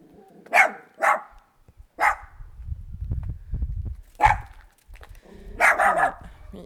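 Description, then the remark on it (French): A small dog barks in sharp, yappy bursts, about six barks with some in quick pairs, separated by pauses filled with a low rumbling background noise. “les chiens ont aussi droit à la parole sur Ryanair.”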